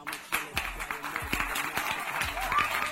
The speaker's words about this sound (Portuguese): Sobe as palmas, por favor.